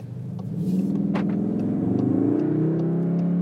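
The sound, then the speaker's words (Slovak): A Cupra Formentor car engine revs and accelerates, its steady rising drone loud, with bursts of airy turbo hiss and a thin whistle riding above the rumble. No one speaks. “Jak to turbo sičí, že? Ale ono to až tak píska.”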